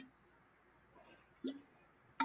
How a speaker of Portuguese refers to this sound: Hidrate. Tá bebendo água.